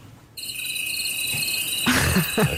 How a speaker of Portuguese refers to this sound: Ok, vou levar a cabo o ritual de entrar na cama. Um, ehm, requer algum ambiente. Vou pôr aqui a tocar sons campestres noturnos.